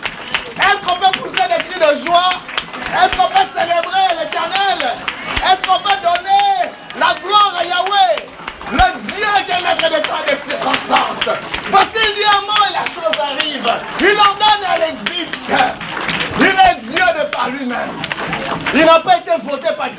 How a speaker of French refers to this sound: Est-ce qu'on peut acclamer le Seigneur Jésus Oh, acclamons-le comme une armée. Acclamons-le comme étant le lion de la tribu de Judas. Il est parmi nous.